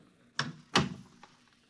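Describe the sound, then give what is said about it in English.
A door swings shut, a sharp knock followed quickly by a heavier thud as it closes, then a faint click of the latch settling, with no talking. “Close the door behind you.”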